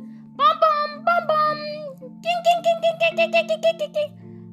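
Loud bus horns over a steady low engine rumble at a busy, crowded bus station as buses coming from elsewhere drive into the station: a few long tonal honks, then a quick rhythmic run of about eight pulsing horn blasts.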